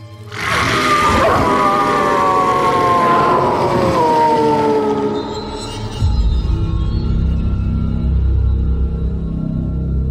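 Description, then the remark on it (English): A pack howls in unison: several loud, drawn-out wails overlap and slide downward in pitch for a few seconds, then give way to a low, steady rumble. “We howl in unison.”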